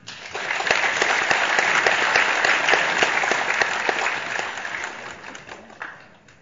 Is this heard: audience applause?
yes